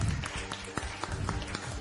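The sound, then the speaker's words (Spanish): A short burst of audience applause, many hands clapping in a dense, steady patter for about two seconds, moderately quiet with no one speaking. “Un aplauso, por favor.”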